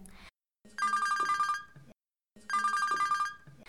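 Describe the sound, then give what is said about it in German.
A home telephone in London rings twice in quick succession while someone sits at a computer, each trilling burst lasting about a second with a short pause between. The ringing is clear, with no talking. “Ich saß an meinem Computer, als das Telefon klingelte.”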